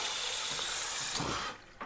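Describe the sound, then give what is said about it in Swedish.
Cold water runs from a tap in a steady hissing rush for about a second and a half, then cuts off abruptly. No one speaks. “Ah, ta kallt vatten.”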